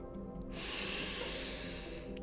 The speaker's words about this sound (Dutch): Je ademt in helemaal naar je buik. En je zucht weer uit. Nog één zo'n ademhaling. In.